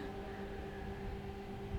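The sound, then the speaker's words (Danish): A steady, continuous mechanical hum from air conditioning indoors, droning evenly with a faint tonal whine over low rumbling noise, with no voices. “En eller anden Øh, det summer herinde fra klimaanlæg? Eller ja, det tror jeg.”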